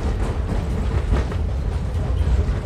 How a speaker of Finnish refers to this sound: No, se kokemus tulee siitä, kun se alkaa oikein heilumaan, niin jalkaa kiskon jatket kolkkaamaan taajaan siellä alla, niin sitten tulee semmoinen illuusio, että tämä menee lujaa tämä juna tässä.